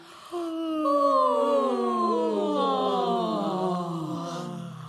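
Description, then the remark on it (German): Several people yawn together at once, long drawn-out voiced yawns overlapping and sliding downward in pitch, steady for a few seconds before fading slightly. “Und gähnen.”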